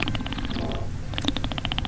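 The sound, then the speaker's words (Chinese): A wet, gurgling slurp as air is drawn through a slit between the lips over a mouthful of red wine while tasting it. The wine is a New World Cabernet Sauvignon and Merlot blend. The bubbly, rapid rattle pauses briefly, then resumes, with no talking. “我在把酒体喝到嘴里以后呢， 嗯， 我就在呃嘴上留了一条缝，然后吸了一点空气进去，就是习惯动作，这就是生理上快速氧化。”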